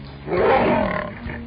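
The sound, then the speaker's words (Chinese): A person reading a children's story aloud imitates a lion's roar with the voice, speaking as a lion who asks a duck if it can roar like him: one long, loud, rough growling roar that swells, holds for about a second, then fades with a short rasping tail. “我看你呀、啊，已经有一头壮观的鬃毛了，但是你能够像我这样吼叫吗？”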